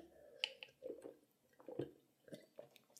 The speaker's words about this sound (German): Ähm, ich muss jetzt kurz ein Wasser trinken.